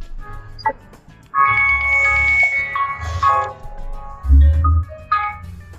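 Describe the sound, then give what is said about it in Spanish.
A phone alarm set for Tuesday meetings rings with a bright, sustained electronic melody of steady tonal notes, fairly loud, playing for several seconds with short breaks between phrases and low rumbling beneath. “Eh, entonces, sí, digo, es mi alarma de las juntas de los martes, sin embargo, hoy la, adelantamos, así que me disculpo por eso.”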